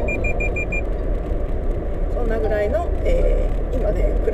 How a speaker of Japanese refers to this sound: あの白線からはみ出てますよっていう多分エラーピピピピピってなってびっくりしちゃいました、えー、でえー、とそうそうそうあのね雪道だからね白線の上を走りたくなくてもねそこがなんかみんながそこ通ってると通らざるを得ないっていうのがあるんだね